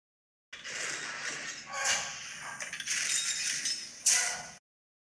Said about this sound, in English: Was that one of the walkers? Yes. Yeah. The yeah. AT-AT. Uh, the AT-AT, yeah. AT-AT. The AT-AT.